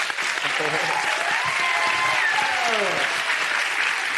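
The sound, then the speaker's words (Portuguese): Sustained audience applause, a dense, even wash of clapping for about four seconds, with faint voices and a brief whoop rising underneath. “Vamos aplaudir, o homem teve a ideia, né?”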